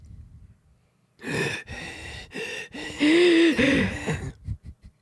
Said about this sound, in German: Atme noch ein bisschen lauter